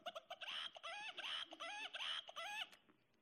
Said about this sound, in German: Und du gehst nachmittags auf den Markt und du hörst, wie der Hahn kräht.